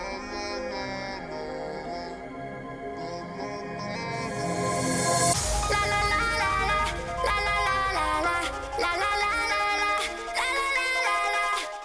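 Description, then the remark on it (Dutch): A euphoric hardcore dance track plays loudly, bright synth melodies building through a rising sweep into a drop with pounding bass and fast, driving beats. No one speaks over it. “Het klinkt een beetje als … van …, zoals je het omschrijft.”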